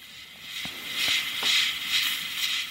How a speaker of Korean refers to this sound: 정답을 말해버렸는데, 뭐, 어때? 정답 공개 시간인데. 자, 오늘의 정답은 밥솥이었습니다. 자, 소리 다시 한번 들려드려볼게요.